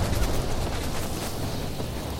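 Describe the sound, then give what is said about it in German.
A video game cannon fires with a loud, booming blast that rolls into a sustained, noisy rumble lasting a couple of seconds, with no talking over it, as the player shoots themselves up toward a sky base with the cannon. “Warte, ich schieße mich jetzt einfach gleich mit der Kanone da hoch.”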